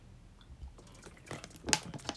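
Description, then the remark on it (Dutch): Someone takes a quick sip from a water bottle, with soft plastic clicks and a brief wet gulp, fairly quiet and with no talking. “Laat me ook heel even een slok nemen.”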